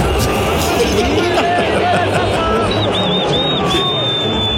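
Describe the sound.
A huge stadium crowd boos a music group at a halftime show in a steady, dense roar of many voices, with shrill whistles cutting through repeatedly in the second half.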